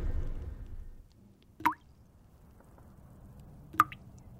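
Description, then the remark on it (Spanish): Two separate water drips fall into a sink about two seconds apart, each a crisp plop with a short ringing tail over a quiet, low background hum. “las palabras caen lentas como el agua que gotea en el fregadero.”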